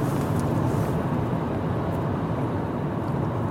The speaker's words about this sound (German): Wow, jetzt geht hier ein Windböhen. Jetzt hat es mir gerade ein bisschen das Auto verzogen.